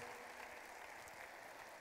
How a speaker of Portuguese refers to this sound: Salva de palmas para eles.